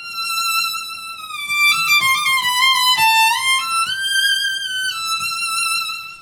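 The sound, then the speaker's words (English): A violin plays a high, sustained melody with smooth slides between notes, its tone sweet and voice-like, continuous and fairly loud for about six seconds with no talking. “and I hear this music coming from the end of the street, and it sounds something like this.”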